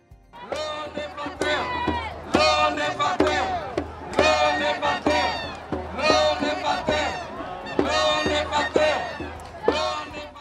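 A protest crowd clamors loudly at a demonstration held during a second lockdown, many voices shouting and chanting in surging bursts with brief dips between them, a constant dense roar of overlapping yells.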